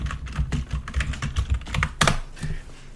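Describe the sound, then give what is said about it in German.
Rapid typing on a computer keyboard, with a steady run of crisp key clicks and a louder clack near the end, no voices. “Aggressives Tippen ist da. Sehr überlegtes Tippen ist da.”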